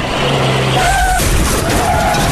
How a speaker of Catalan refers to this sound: Cotxe.